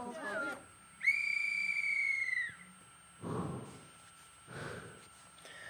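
A conductor's whistle sounds once, a loud sustained shrill blast lasting about a second and a half, signalling a train's departure in a staged railway-station scene, followed by bursts of muffled talk and noise.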